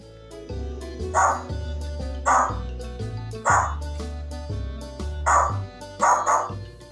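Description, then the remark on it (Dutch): A bird mimics a neighbour's dog barking, giving about six short bark-like calls at a steady pace over soft background music, each call fairly loud. “Eh, wel een vogel. Ja, dat klopt. Die heeft leren blaffen door de hond van de buren na te bootsen.”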